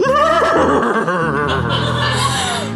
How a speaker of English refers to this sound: And the horse silhouette, that must be the robot horse, yeah? I think you're right. Oh, there goes the screen. Good God. Robot horse.